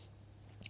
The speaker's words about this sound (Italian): eh, questa tosse oggi.